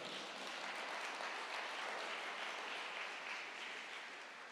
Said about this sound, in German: Genau, wir können jetzt klatschen.